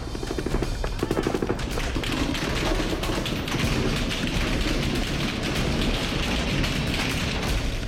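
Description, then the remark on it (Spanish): Rapid bursts of automatic gunfire in an exchange between soldiers and criminals in Altar, Sonora, in July 2022, recorded by residents, crackle and thud over a dense, noisy background, with sustained, echoing rattling volleys. “Este es el intercambio de disparos entre militares y delincuentes que grabaron los residentes de Altar Sonora en julio de 2022.”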